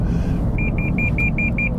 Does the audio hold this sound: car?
yes